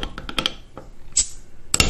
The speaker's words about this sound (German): Deshalb würde ich jetzt, ähm, ich würde jetzt mal kurz dieses, diese Buffalo Wings Soda aufmachen, wenn das okay wäre.